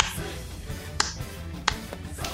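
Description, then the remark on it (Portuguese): A few sharp, crisp hand claps sound at uneven intervals, four or so short bright smacks standing out over a steady low background murmur. “Palmas pra você.”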